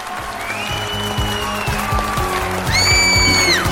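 An audience applauds steadily and loudly to encourage a participant, with sharp whistles rising over the clapping toward the end, continuous with no one speaking.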